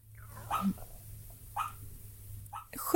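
A dog lying asleep and dreaming gives a few soft, muffled woofs and whimpery yips, spaced about a second apart, over a low background hum.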